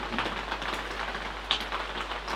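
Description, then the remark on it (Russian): Steady rain patters outdoors at the start of the rainy season, a dense, even hiss of drops striking surfaces with occasional brighter splashes, continuous throughout, with no voices. “Надеюсь, дождь а... сейчас не помешает э, записи звука. Если что, у нас сезон дождей начался.”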